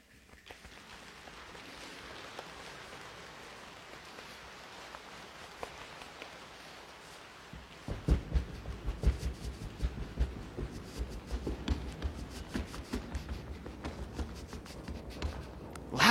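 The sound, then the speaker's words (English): A group makes a rainstorm sound with their bodies by rubbing, snapping, patting and stomping: a soft, steady patter of pats and rubs builds, then gives way to a dense, loud rumble of many stomping feet. “Pretty cool, right? Sounds like a rainstorm”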